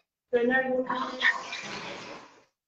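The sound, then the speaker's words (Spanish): The speaker's female pet dogs, one named Tina, fighting: a brief burst of high, strained yelps and growls that turns into a rough, hissing scuffle of snarls, lasting about two seconds before stopping abruptly. “perdón, Mis perritas se pelearon, lo siento.”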